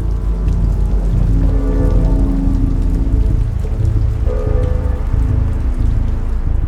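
Steady, dense rain pattering on a hard surface, a continuous wash of drops at even loudness throughout with a low rumbling undertone and no voices.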